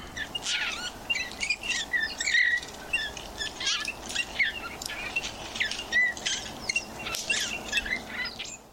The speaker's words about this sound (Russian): Вот песня снегиря, кстати, звучит совершенно по-другому. Это такой грустный-грустный свист, и очень хочется птичку пожалеть сразу.